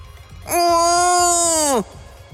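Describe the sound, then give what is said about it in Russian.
A baby lets out one long, plaintive whimpering cry, held steady for over a second before sliding down and breaking off, loud over a faint low rhythmic background. “малыш Карла, чтобы его услышали, жалобно захныкал”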